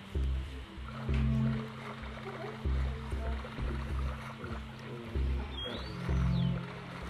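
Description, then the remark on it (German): A brief, high video game dolphin chirp sweeps up and down near the end, over a steady low watery rumble with a droning hum underneath. “Das das war ein Delfin, falls du die Geräusche ja. von ah. Minecraft nicht kennst.”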